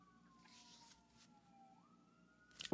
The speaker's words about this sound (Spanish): Aquí estoy haciendo una pausa por las sirenas.